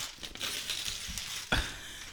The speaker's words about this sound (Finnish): niin sä oot meidän virallinen äänisuunnittelija, niin sieltä rypistellään vähän paperia.